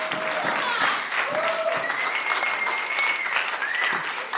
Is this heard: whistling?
no